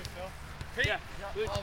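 A few dull thumps of a soccer ball being kicked, spaced irregularly, mixed with shouts and calls from a group of soccer (football) players practicing on an open field.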